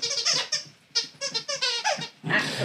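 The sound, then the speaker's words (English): A dog named Paco works a squeaky toy, producing a quick series of high, wheezy squeaks in uneven bursts, fairly loud, with no talking. “gonna wind up hearing Paco every once in a while squeaking at toys”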